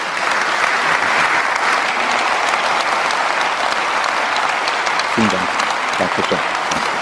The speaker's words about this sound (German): Das ist Ihr Applaus. Vielen Dank. Danke.